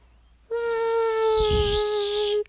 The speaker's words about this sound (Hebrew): איפה היתוש הזה נמצא? אוי, אוי, מה זה? מה זה? אני לא יכול ככה. הוא גם עקץ אותו.